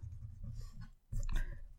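Scratchy pen-on-paper strokes as someone writes by hand, with a brief pause near the middle before a louder burst of scribbling resumes. No one speaks.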